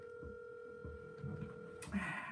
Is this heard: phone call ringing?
yes